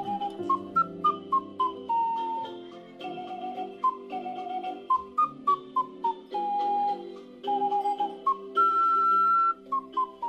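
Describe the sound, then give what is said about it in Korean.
An ocarina plays a gentle melody of pure, breathy tones, mixing short stepping notes with long held ones, over a soft, steady accompaniment; no one speaks. It is played at a welfare center by a 65-year-old retired teacher who performs on the ocarina as volunteer work. “지금은 오카리나 연주로 봉사활동을 하고 있죠.”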